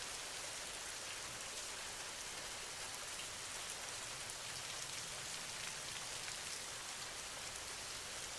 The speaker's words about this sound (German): Geräusch entsteht, wenn der Regen auf den Boden trifft. Jeder einzelne Regentropfen erzeugt ein Geräusch. Tropfen für Tropfen entsteht das angenehme Rauschen des Regens.